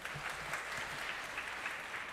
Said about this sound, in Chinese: 好，不然我们最后拍手，将荣耀归给我们的神。